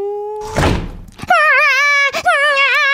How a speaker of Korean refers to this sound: 아, 아 진짜 저놈의 문소리